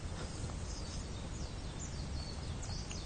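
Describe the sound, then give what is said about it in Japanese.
Faint, scattered chirps of small birds drift through a steady outdoor hiss, quiet, with no one speaking. “今ライブ配信リアルタイムでご参加いただいている皆様はあの小鳥のさえずりを聞きながら お待ちいただけたら嬉しいです。”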